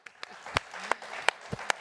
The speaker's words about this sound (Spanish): Lo aplaudimos, lo recibimos.